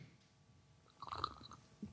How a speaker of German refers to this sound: Er schlürft Kaffee. Ah. Espresso im Übrigen.